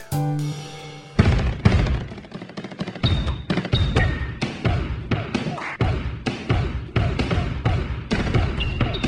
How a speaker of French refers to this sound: on entend la balle frapper le sol en rythme, mais aussi le bruit de la semelle en caoutchouc qui glisse sur le parquet